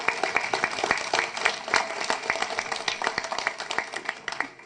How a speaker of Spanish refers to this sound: Un aplauso para ella también, por favor